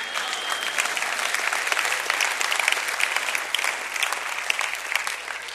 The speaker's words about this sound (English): Yeah, we can clap.